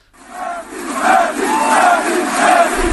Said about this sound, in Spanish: Pues gritos de Messi, Messi, un montón de aficionados del Paris Saint Germain que se han concentrado alrededor del, estadio del Parque de los Príncipes a ver si podían verle.